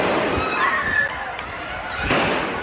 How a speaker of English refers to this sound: Panic and fear as gunshots ring out at a shopping mall in Denmark's capital.